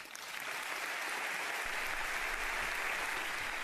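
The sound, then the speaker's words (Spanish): French legislators of the assembled parliamentary chambers give sustained applause to President Macron after his speech. The clapping is a dense, steady wash that holds at an even, full level throughout, with a faint murmur of voices underneath. “Además, el presidente Macron fue bien recibido y muy aplaudido por las cámaras.”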